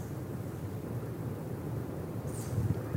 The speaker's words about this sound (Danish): når vinden kommer mod en, når man lige hører lidt i træerne, så er det som om, at der, der er noget, der nærmer sig en, ikke? Det er bare vinden det er, jeg synes, det er en ret overvældende følelse at være her i dyrehaven i aften.